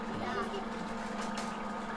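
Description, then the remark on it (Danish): A children's foot spa bath hums steadily while water bubbles and sputters continuously, a low motor drone under a busy, fizzing gurgle that holds an even level throughout. “Nu kommer bobler.”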